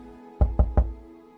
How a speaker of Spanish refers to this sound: Ves como unas personas vestidas de blanco vienen hacia ti. Van a tocar tu puerta